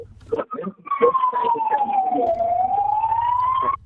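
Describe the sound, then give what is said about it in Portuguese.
A fire engine siren wails loud as the fire vehicle passes by in Barcelos, Portugal, its tone sliding slowly down and then back up for a few seconds, after a brief burst of someone speaking. “vim aqui a passar ao pé de mim uma, uma viatura de bombeiros.”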